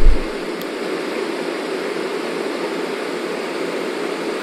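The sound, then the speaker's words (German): Steady, monotonous white noise hisses evenly throughout, a soft, constant rushing sound with no changes or pauses, like a sleep sound machine playing alone. “Dann ist es vielleicht nicht verkehrt, wenn man irgendwie sowas hat, dass einfach der Lärm von draußen übertönt wird und ich durch dieses monotone Rauschen besser einschlafen kann.”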